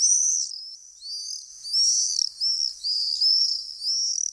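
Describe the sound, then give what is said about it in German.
Shrill, high-pitched screams of common swifts that have built seven clay nests under a house's roof gutter, coming in repeated bursts of several seconds' length, fairly loud, with no voices or other sounds underneath. “Die Mauersegler sind gekommen und haben sich mit dem Ton Nester unter die Dachrinne gebaut, gleich sieben Stück sogar.”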